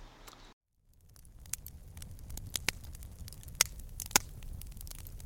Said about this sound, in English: Ah, you hear that? The sound of a crackling fire. But this isn't just any old campfire. This is a smokeless solo stove fire pit. How can you tell? Well, you don't hear any coughing, hand wafting, or people complaining about smoke in their eyes.